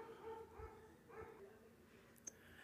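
Dogs bark faintly in the distance, a few irregular yelps and barks drifting over quiet background noise, with one brief sharp click near the end.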